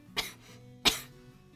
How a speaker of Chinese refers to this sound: 哦，你又开始咳嗽了，又开始咳嗽。